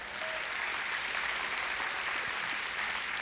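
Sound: audience applause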